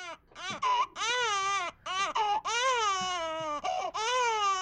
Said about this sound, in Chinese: 我儿子当时闹起来，就是一直在哭。